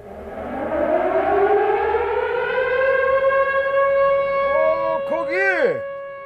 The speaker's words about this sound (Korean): 걱정된다는 그와 같이 집으로 뛰어가는 도중에 그만 통금 사이렌이 울리고 말았습니다.